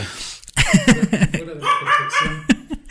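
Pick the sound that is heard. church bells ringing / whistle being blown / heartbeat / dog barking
dog barking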